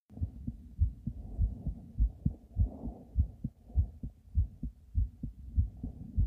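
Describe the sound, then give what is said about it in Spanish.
A steady human heartbeat thumps alone in low, muffled pulses, roughly a dozen paired beats at an even rhythm, soft with a faint hum underneath. “Probablemente el primer sonido rítmico que escuchamos es el del latido del corazón de nuestras madres.”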